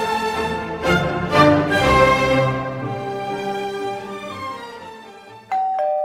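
A doorbell chimes with a quick run of bright ringing tones that hum and slowly fade, then a second short chime sounds near the end. Nobody speaks.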